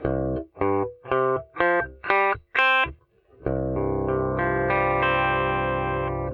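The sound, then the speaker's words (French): An electric guitar with effects plays its six open strings one at a time in a rising sequence, then strums them together into a sustained, ringing chord in an alternate tuning. No voices. “Donc voilà ce que ça donne quand on joue les cordes à vide cette fois-ci.”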